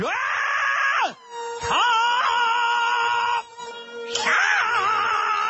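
Qinqiang opera singing of the aria 'Heihu Zuotai' from the Qinqiang opera 'Huanghe Zhen', based on the novel Fengshen Yanyi. A loud, strained, high-pitched voice holds long wailing notes with swooping pitch, broken by two short pauses where a steady accompanying tone lingers.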